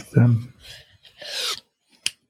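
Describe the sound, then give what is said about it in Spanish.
Scraping and rubbing noises against a wooden object with a button, made of wood as part of a thesis project, then a single sharp click as the button is pressed near the end, brief and crisp after a short pause. “Tú tiene un botón, entonces tú la petas acá.”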